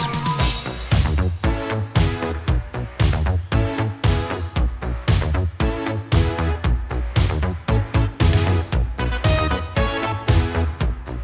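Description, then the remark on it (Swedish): The riff of a 1984 film theme song: a tight, funky electric guitar riff repeats over punchy bass and drums, loud and upfront with a steady, driving groove and no voices. “Den låter så här och vi ska bara lyssna på riffet.”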